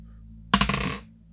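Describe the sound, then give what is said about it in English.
A twenty-sided die, rolled for a gun attack in a tabletop game, clatters across a hard tabletop in a quick burst of rattling taps, tumbling for about half a second before settling on 15. No one speaks. “Can you give me a D twenty roll?”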